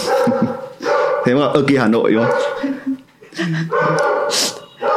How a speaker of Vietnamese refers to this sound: đợi chó sủa xong